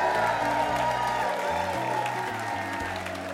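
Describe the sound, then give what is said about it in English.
An audience claps steadily for several seconds in a dense, even wash of applause, with a few faint cheers and low sustained musical notes shifting underneath, at a stage studio in the Museum of Commerce in Pensacola's historic village. “Give yourselves a big hand.”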